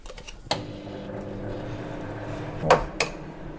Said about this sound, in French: Alors on sépare le jaune du blanc. Voilà, et je garde que les jaunes.